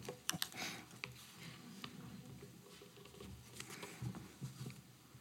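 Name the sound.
rummaging around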